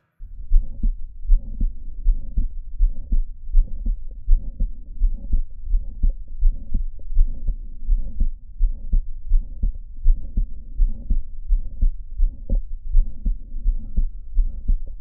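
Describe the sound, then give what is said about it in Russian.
Steady, regular heartbeat of a patient with mitral valve prolapse heard through a stethoscope, low-pitched, with repeated thumping beats and a soft murmur-like whoosh between them, continuing throughout with no talking. “Часто это действительно так – Однако пролапс митрального клапана слышен нередко ближе к грудине, вдоль левого ее края.”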